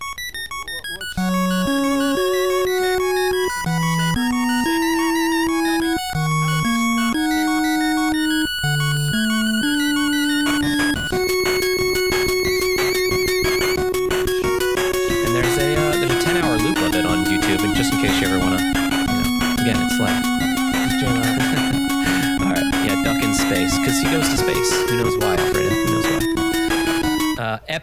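An 8-bit chiptune theme plays loud and alone, opening with bouncy, staccato square-wave notes before a sustained lead melody glides over a dense, busy backing of bleeps and arpeggios.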